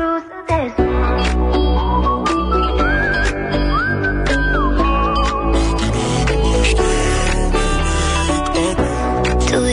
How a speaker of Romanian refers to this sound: Hai să ascultăm uh, piesa și radio voting după aceea.